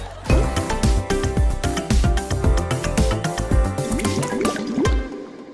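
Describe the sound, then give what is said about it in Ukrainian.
A busy stream of water bubbling and dripping, with rapid pitched plops and gurgles tumbling over each other steadily for several seconds, fairly loud, with no voices. “Акваріум! Буль-буль-буль-буль-буль.”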